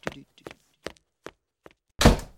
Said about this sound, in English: I detect the door was shut with more force than usual did you replace it with one that has more mass?